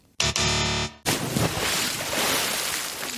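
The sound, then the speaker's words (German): A brief loud tonal blast cuts off, followed by steady, close water splashing and sloshing that continues for a few seconds with no voices. “Da höre ich Wasserplanschen, ähm, aber ich glaube, wir sind ja nicht zum Spaß hier.”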